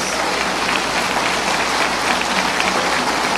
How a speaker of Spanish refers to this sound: Nos vamos a poner de pie unos segundos y mándele un fuerte saludo y un fuerte aplauso a todos los hermanos que nos ven. Fuerte el aplauso. Fuerte. Fuerte el aplauso a los hermanos católicos, que sigan adelante, que sigan una y otra vez.